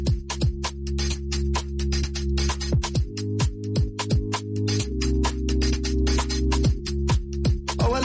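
A pop song plays loud and up front, driven by a steady, punchy beat with crisp hi-hats over deep, sustained bass tones that occasionally slide downward.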